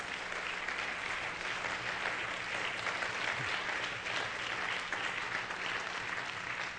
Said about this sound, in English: Why don't the congregation give our guest a hand clap today?